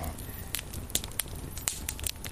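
A campfire crackles with irregular sharp pops and snaps over a steady low rumble of burning, the bright cracks scattered unevenly across a couple of seconds.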